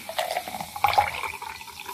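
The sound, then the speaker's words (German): A drink is poured into a glass, a bright splashing and gurgling stream with rising tonal bubbling, lasting about two seconds with no talking. “Ah, die Einschenkgeräusche, die unterscheiden sich schon.”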